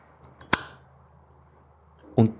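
A single sharp, crisp snip as a plant stem, already cut once in the air, gets its fine cut under water, followed by a quiet stretch and a brief, duller low sound near the end.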